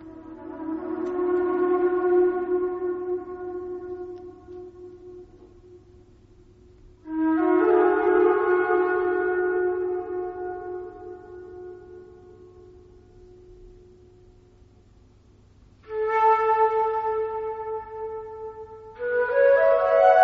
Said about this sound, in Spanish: escuchar un poco cómo retumbaba la gran pirámide con el sonido tan peculiar de la flauta